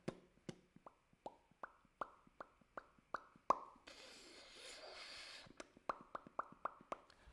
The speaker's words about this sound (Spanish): ¿Prefieres la lluvia que cae?